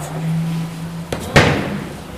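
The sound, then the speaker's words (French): A door is pushed shut by a person shutting himself in, with a soft knock followed by a single loud slam that rings briefly, after a low steady hum fades out. “Il va fermer la porte.”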